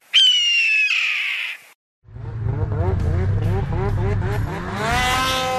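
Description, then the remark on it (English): A snowmobile engine revs hard, its pitch surging up and down in quick repeated bursts, preceded by a brief high-pitched squeal and a short pause, in winter in Hayward, Wisconsin. “That's the sound of winter fun at Seven Winds Lodge and Casino in Hayward, Wisconsin.”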